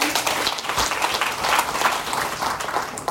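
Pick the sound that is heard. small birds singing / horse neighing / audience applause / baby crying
audience applause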